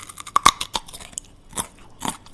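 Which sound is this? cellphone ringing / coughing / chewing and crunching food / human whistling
chewing and crunching food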